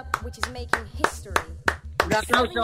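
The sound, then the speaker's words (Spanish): Steady, rhythmic hand claps, about three per second, sounding over a low pulsing beat and voices that carry through the whole stretch, applause for the part of China making face masks for the world. “Bueno, y también vamos a dar un fuerte aplauso a, a esa parte de China que está fabricando mascarillas para todo el mundo.”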